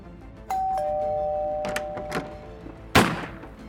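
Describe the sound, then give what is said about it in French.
A doorbell chimes two descending tones that ring on and fade, followed by a few muffled knocks and one louder thump near the end. No one speaks. “Dans quelques secondes, la sonnerie se ferait sans doute entendre”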